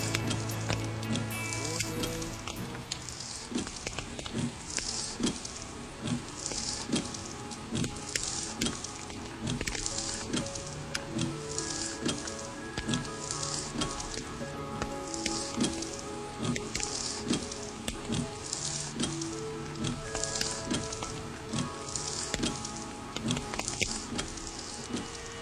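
Light rain pattering steadily on the front windshield of a car stuck in traffic, a dense, even hiss dotted with sharp little taps, with a soft, sustained tonal background beneath and no voices.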